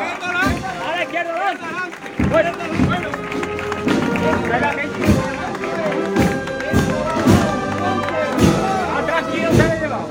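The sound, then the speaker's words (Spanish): A neighbourhood street crowd in Chiclana cheers and calls out during a Palm Sunday procession of the image of María Santísima de las Angustias, a dense wash of voices over heavy drum thuds that land roughly every second and a half, loud and continuous throughout. “Cuando María Santísima de la Angustias está de nuevo en las calles y escuchan cómo su barrio lo agradece.”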